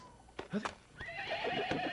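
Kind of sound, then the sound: animal, horse neighing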